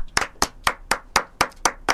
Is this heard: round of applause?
yes